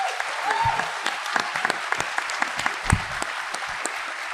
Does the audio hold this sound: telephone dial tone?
no